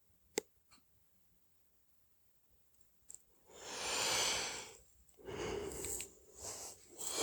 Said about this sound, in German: Ah ja, da kommt gleich die der vertiefende Atemzug, also in Form eines Gähnens, hat funktioniert.